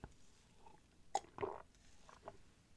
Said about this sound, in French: Je vais prendre une gorgée d'eau pour Ibrahim.